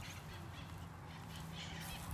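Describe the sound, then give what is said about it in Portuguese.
A harsh, raspy bird squawk, drawn out and grating, with a buzzy low-pitched edge and no talking over it. “É um pássaro. Sim, é um pássaro.”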